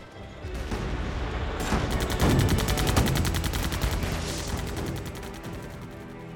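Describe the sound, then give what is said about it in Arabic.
Heavy gunfire in a jungle battle on 29 August as Japanese troops break through the Australian right flank, with rapid machine-gun bursts, a dense rattling barrage of sharp repeated shots that stays loud and continuous throughout, with heavier thuds mixed in and no voices. “في التاسع والعشرين من شهر أغسطس اخترق اليابانيون الجناح الأيمن لأستراليا وبدأوا في دفعهم للخلف مهددين بقطع القوات الموجودة على الأجنحة عن مقرهم كان إطلاق النار كثيفا لدرجة أن الغابة جردت من نباتاتها في دقائق”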